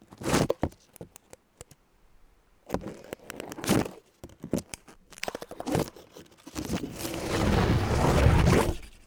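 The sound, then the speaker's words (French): Crisp rustling and scraping as a microphone is rubbed against the leaves of a green houseplant, coming in irregular bursts with short pauses, then a longer, denser rubbing near the end. No voices. “Micro frotté sur plante verte.”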